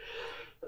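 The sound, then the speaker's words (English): A single sneeze: a sharp, loud rush of breathy noise that cuts off quickly, followed by a brief voiced catch at the end. “Bless you”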